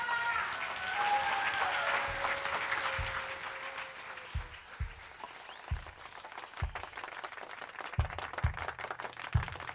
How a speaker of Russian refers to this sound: Здесь, на летней веранде маяка, в прямом эфире. Под ваши бурные, кстати, аплодисменты! Аплодисменты!